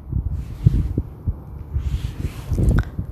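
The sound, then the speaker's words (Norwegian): Wind buffets the microphone in low, uneven thumps over a steady rumble of road traffic and cars, with a faint passing boat, heard outdoors from a coastal path in Spain overlooking Benidorm and the sea. “Så her hører jeg lyder fra veien, vinden Hører en båt. Bilene.”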